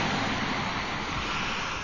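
A steady, loud roar of sea waves fills the whole stretch, a dense hiss and rumble of surf that churns on without pause or distinct breaks. No voices are heard.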